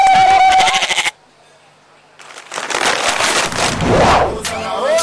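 A loud, wavering goat bleat opens, breaks off into a brief silence, then returns as a rough, noisy bleating mixed with scuffling sounds, prominent throughout.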